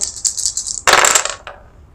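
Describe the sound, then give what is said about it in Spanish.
A brief rattle of three dice being shaken, then a louder clattering tumble across a hard surface that settles with a final small click. No one speaks. “Tiras 3 dados de, éxito o proyección 15 es tu número objetivo.”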